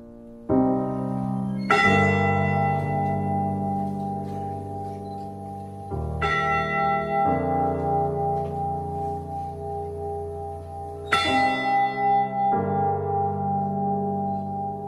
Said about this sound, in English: The day after the wreck, the Mariners Church in Detroit rang its bell 29 times for each of the crewmen lost and this ceremony continues in Michigan today with the ship's actual bell, raised in 1995 and kept at Whitefish Point.